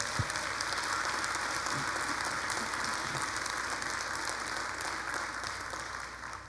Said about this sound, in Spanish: Si es así, dale un aplauso a Dios, por favor.